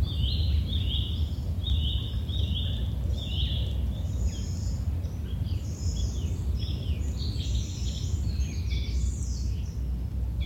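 Birds chirp and trill continuously in a forest, several calls overlapping over a steady low rumble of wind or ambient noise, with no one speaking.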